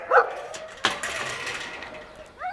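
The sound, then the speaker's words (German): Dogs bark and whimper in short, excited bursts on a parking lot: a high yelp at the start, a sharp bark, then whiny rising cries trailing off at the end, with faint background noise. “Such beautiful dogs.”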